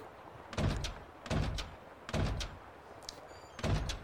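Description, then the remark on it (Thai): A door slams shut four times in a steady rhythm, each a loud, heavy thud with a short crack, separated by brief quiet gaps, as in a video game's repeated door effect. “คือมันยากคือพอประตูมันสามารถอินเตอร์แอคกับตัวละครหรือกับ NPC ได้เดี๋ยปัญหาเราเนี้ยมันเกิดขึ้นมา”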